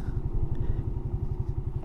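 A Suzuki GN 125 motorcycle engine thrums steadily while travelling through the Sierra de Oaxaca in Mexico, its low pulsing beat repeating rapidly and evenly at a constant, moderately loud level with no voices.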